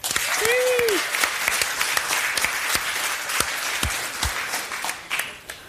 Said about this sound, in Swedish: Gott folk, ge en varm applåd för Jonathan Unge.